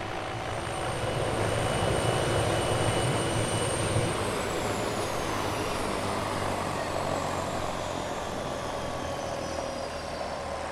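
A red helicopter's engine runs steadily after it has just landed in a neighbouring cove, having circled overhead, with a loud, continuous turbine whine and rotor roar, holding at a constant level throughout with a high tone that slowly shifts.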